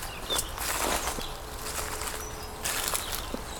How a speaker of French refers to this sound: Mais pour le moment, écoutez le réveil matinal de la forêt.